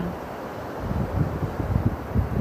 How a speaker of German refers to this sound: Und während du nun schon das Meeresrauschen hörst,